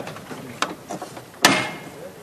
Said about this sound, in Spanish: Suena el martillo y no sube el paso de misterio de Jesús de la Redención